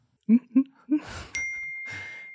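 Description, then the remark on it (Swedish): A short electronic chime rings out, a phone's text message notification, its bright tone holding steadily after a few soft low blips and a burst of noise. “Nej, jag får ett sms av Melina.”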